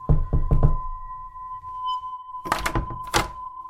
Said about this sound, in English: Abigail was quicker and rapped on the smooth white surface of the door